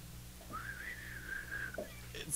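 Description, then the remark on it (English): A short, wavering attempt at whistling a western film theme: one thin, breathy tone wobbles for about a second before trailing off unsteadily, ending with a brief burst of noise. “I can't whistle it. Oh, okay, you can't whistle. I was gonna do the good, the bad, and the ugly.”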